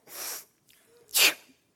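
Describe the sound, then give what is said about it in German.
A voice imitates spitting on the ground: a hissing, breathy burst, a short pause, then a sharper, louder spitting blast, with no talking. “Jesus, lesen wir dann, macht einen, spuckt auf die Erde, rührt einen Brei an”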